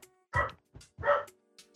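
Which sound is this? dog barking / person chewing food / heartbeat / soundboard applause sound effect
dog barking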